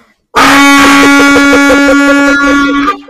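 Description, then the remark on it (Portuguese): A handheld horn (corneta) blares in one long, loud, steady blast for close to three seconds, harsh and buzzy, then cuts off. “Meu amigo Deco mandou mensagem que falou que eu vou ser preso tocando a corneta”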